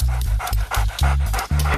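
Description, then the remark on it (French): A dog named Lobo, a detection dog, sniffs the first jar in a row of jars in quick, rhythmic bursts, short rapid inhalations repeating about every quarter second, fairly loud and steady with no voices. “Lobo renifle le premier bocal,”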